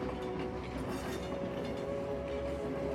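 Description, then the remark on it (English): A train rolls steadily along the tracks through the wilderness with a continuous low rumble and faint rhythmic clacking at a moderate, even level with no voices. “The train is taking you along for the ride into a new and beautiful destination when you rise.”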